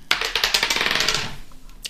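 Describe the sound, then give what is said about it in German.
Dice clatter across a hard tabletop in a quick burst of sharp clicks that slow and settle, fairly loud, with no voices. “Sollen wir würfeln? Mhm. Wir müssen mhm. würfeln.”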